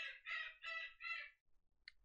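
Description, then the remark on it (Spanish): A pet parrot screeches four times in quick succession, harsh and loud, followed by a brief pause and one short sharp squawk at the end. “Esos gritos, si es que se están escuchando, es mi perico.”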